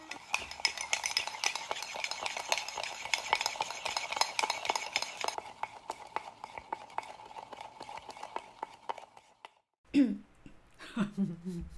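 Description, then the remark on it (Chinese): A spoon stirs a drink in a cup with no ice left in it, a rapid run of light clinks and scraping that goes on for about ten seconds, followed by a brief burst of voices. “对啊， 先从我搅拌。哎，没有冰块了。”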